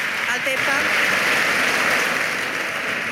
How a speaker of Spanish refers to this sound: Allí se vivió una larguísima salva de aplausos de cuatro minutos por parte de senadores y diputados, que no fue a más por la intervención de la presidenta de la Cámara.